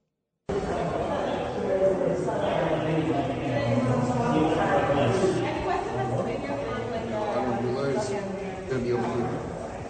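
A steady murmur of many overlapping voices fills a busy indoor space as people move through, with no single voice standing out and no clear footsteps emerging from the chatter.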